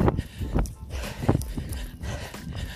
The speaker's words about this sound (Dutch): hopelijk horen jullie mij door de wind.